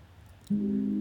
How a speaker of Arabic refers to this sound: وفجأة لقيت تليفوني رن ده أكيد هو